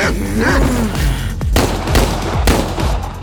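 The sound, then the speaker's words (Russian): A few sharp pistol shots crack out in quick succession, fired at an attacking dog, loud, with a noisy background and a brief growling, whining tone early on. “радар откинулся в сторону, позволив псине пронестись мимо и выстрелил несколько раз в ее сторону”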